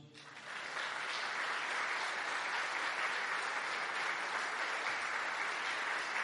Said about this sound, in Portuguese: Amém, igreja? Vocês podem aplaudir Jesus?